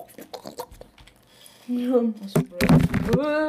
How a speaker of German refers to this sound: Erstmal das Mikrofon umgeschmissen. Ich hoffe, das war jetzt nicht zu laut für die Zuschauer.